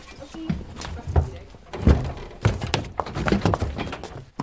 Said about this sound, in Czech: Z vozíku, který přijel, postupně vystupují oba koně, Famir i Fabio, haflingové.